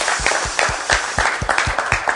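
An audience applauds with a dense, steady patter of many hands clapping, moderately loud and sustained for a couple of seconds with no voices over it.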